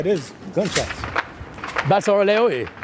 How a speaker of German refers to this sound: Plötzlich sind nur zwei Blöcke weiter Schüsse zu hören.